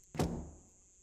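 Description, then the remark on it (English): A single heavy slam of a back door, a sharp thudding impact with a short low rumble trailing off afterward, heard alone with no voices. “but then the back door slammed.”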